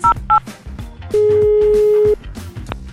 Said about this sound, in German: Jetzt habt ihr hoffentlich euer Handy bei euch, denn ich rufe euch an.